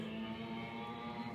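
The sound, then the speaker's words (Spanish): A poorly tuned motorcycle passing by drones steadily, a rough buzzing hum with a strong low tone that holds at a constant level throughout, with no voices. “disculpen el ruido aquí que está pasando en este momento una, una moto mal afinada.”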